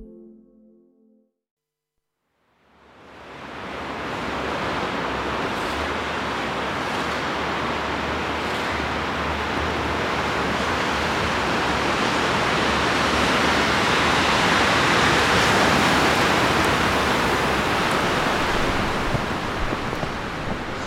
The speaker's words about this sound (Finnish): lunta alkaa kiinnostua jo tosi paljon tänne etelärannalle ja tuuli on varmaan 15 metriä sekunnissa. Ei siis vielä mikään myrsky itse asiassa, mutta aikamoinen lumituisku